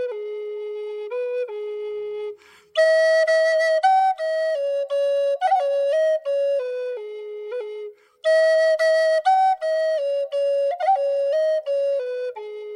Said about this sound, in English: He's a storyteller and musician with the Nulhegan Abenaki tribe of Vermont and upstate New York. And Joe carves and plays traditional flutes.